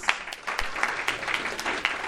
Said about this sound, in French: Est-ce que ça va mériter un bel applaudissement en plus